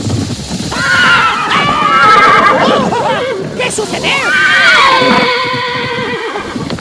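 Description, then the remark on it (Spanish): A horse, startled by a snake, neighs loudly and at length in a high, shaky whinny that rises and falls, with a brief clatter of hooves; a person speaks over it. “¿Qué fue lo que espantó mi caballo?”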